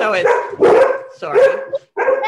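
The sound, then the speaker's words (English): A dog barks several times in quick, loud bursts at home while someone works from home, with a person speaking briefly over and between the barks. “Just, oh, that's a dog.”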